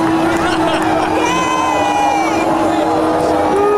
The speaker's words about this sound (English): Getting booed by people sitting in the fucking grass. Goddamn launch seats.